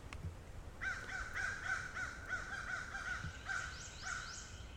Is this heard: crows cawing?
yes